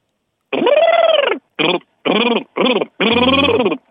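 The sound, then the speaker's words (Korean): A voice imitates a motorcycle engine with five loud, buzzing vocal bursts separated by short pauses, rough and droning, more like a power drill than a bike. “그건, 그건, 그건 드릴인데 드릴 드릴.”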